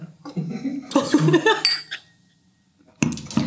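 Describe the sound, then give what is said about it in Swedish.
Glasses clink together in a toast, a quick cluster of bright knocks with a short ringing tone, framed by voices before and after. “uh, skål på det.”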